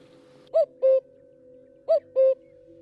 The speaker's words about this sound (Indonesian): Jadi burung yang didengar Mas Herman adalah burung kedasi. Burung kedasi menurut sebagian orang Jawa dan sebagian orang Jawa ini menyebutnya dengan burung titir yang kalau diartikan kata titir itu artinya pertanda atau peringatan.